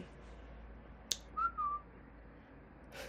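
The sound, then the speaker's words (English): A person whistles a short, two-part tune to themselves, a sliding note followed by a second held tone, preceded by a sharp click, with a soft low hum underneath and no talking. “Uh, I was whistling at myself because I, I'm tired, I guess.”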